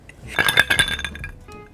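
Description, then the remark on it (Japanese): Several glasses of Iki Old barley shochu (25 percent) clink together in a toast in quick succession, bright ringing chimes that cluster in the first second and then fade into a soft tail, with no voices. “乾杯でいただいたお酒はこちらこちらって言ってもこれ音で聞いてるから今から言おうとしたの、うん、持ってるけど今手に今今持ちました、うん、世界が認めた生き焼酎麦焼酎生きオールド25度本格焼酎です”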